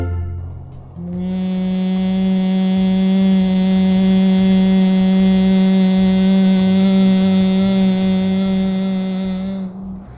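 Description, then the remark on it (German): A person hums one steady, low, buzzing note imitating a bee, performing the Bhramari breathing technique, held unbroken for about nine seconds, fairly loud, with no talking. “Wir hörten eben gerade das Bienenbrummen.”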